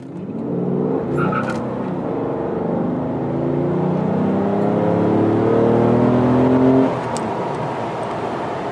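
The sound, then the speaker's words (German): The twelve-cylinder engine of a Mercedes-Benz car gurgles deeply, its throaty tone slowly climbing as it revs for several seconds before easing back to a steady low rumble. No voices. “Das Gurgeln seines Zwölfzylinders erfüllte Grobmann mit tiefer Zufriedenheit.”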